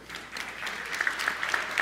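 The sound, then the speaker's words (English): An audience at Trinity church applauds together during the Easter season, a steady wash of many hands clapping at an even, moderate level, with no one speaking over it. “We're clapping a lot because we go big during Easter season and it's still Easter.”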